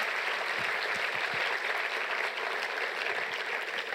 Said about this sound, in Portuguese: Obrigado pessoal, uma grande salva de palmas para a nossa banda.